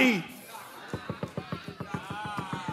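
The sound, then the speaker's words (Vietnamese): A rapid, insistent run of about fifteen sharp knocks on a door, evenly spaced, following a brief vocal sound at the start. “Hãy nghe tôi, Chúa Giêsu gõ cửa nhà bạn như thế đấy, như một người giao hàng đang bực bội, muốn giao được hàng, mà không hề đọc ghi chú ở trước cửa.”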